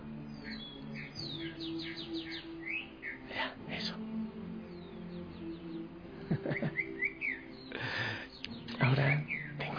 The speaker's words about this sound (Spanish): Escucha, es que este pajarito ya sabe los horarios que yo oro. Y entonces él según escucha.